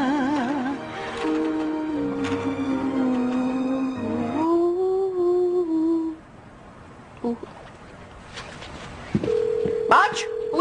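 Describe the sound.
A few short electronic keypad dialing tones beep near the end, clear and close, following a longer stretch of wavering, voice-like tones and a quiet pause.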